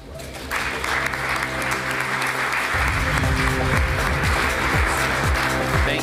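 A crowd breaks into sustained applause for Mayor Hancock and Councilwoman Kniech, a dense wash of many hands clapping that swells after a moment and stays loud throughout, with some low rumbling underneath.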